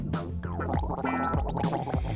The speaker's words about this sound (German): Mit kaltem Wasser gurgeln oder den Kehlkopf mit Eiswürfeln bestreichen. Beiden Tricks liegt ein Prinzip zugrunde, das bei vielen Methoden wirkt. Kälte und Wasser reizen den Vagusnerv in der Rachenwand.